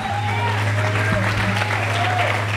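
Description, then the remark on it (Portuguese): An audience applauding God at a morning service: dense, steady clapping from many hands throughout, fairly loud, with a sustained low musical drone and faint voices underneath. “Aplauda ele, faz alguma coisa quebrantado.”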